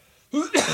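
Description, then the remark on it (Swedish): A single loud sneeze: a short voiced gasp followed by a sharp, breathy burst, after a brief moment of near silence. “jag kan inte prata. Prosit.”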